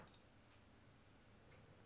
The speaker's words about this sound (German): Ja, dann klicke ich einfach mal hier aufs Zufallsthema. Okay, klick mal, klick mal drauf.